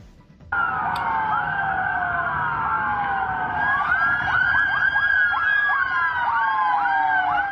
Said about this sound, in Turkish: Peş peşe dizilmiş sirenleri çalan 50'den fazla ambulans önce görenleri korkuttu. Gerçekse dakikalar sonra anlaşıldı. O ambulanslar İstanbul'da görev alacak ambulanslardı.